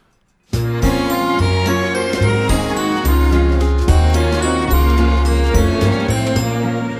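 song playing

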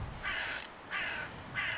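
crow cawing

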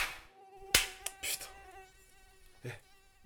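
fly buzzing in flight

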